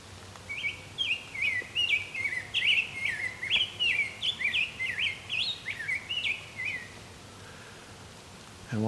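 A rose-breasted grosbeak sings a long, rich warbling phrase of sweet, rolling whistled notes for about six seconds. The bird sounds clear, with only a faint low hum behind it.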